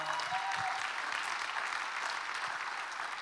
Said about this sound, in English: you can clap a bit louder for that, it's all right.